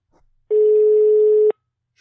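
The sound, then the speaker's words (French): A telephone ringback tone: one steady, loud, one-second beep heard through the line as an outgoing call rings. No one answers or speaks. “on va même lui laisser un message, il répond pas.”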